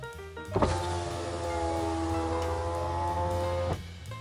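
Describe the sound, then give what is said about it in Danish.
Car power windows whir down with a steady electric motor hum lasting about three seconds, starting and stopping with soft clunks, as the driver waits last in the queue at a car wash, with no talking. “Faren holder bilen som den sidste i køen ved bilvasken og ruller vinduerne ned.”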